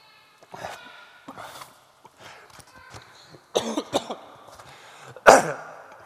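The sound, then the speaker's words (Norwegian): A preacher's run of harsh, irregular coughs and throat-clearing sputters after swallowing wrong while preaching, with breathy gasps between them and one sharp, loud cough near the end. “Nei da, jeg puster, Jeg svelga feil.”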